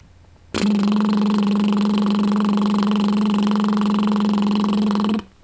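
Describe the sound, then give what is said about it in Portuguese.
A single sustained rolled TR tongue trill, done as a speech exercise: a steady buzzing rattle of the vibrating tongue held at even loudness for about four and a half seconds, starting and stopping abruptly, with no talking. “Agora, sustente o som de TR sentindo a língua trepidar.”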